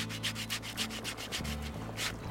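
A man sands a thick spruce plank, measured to 89 cm, on a woodworking bench: sandpaper rasps back and forth in quick, steady strokes, each a dry hissing scrape, with a low hum running underneath and no talking.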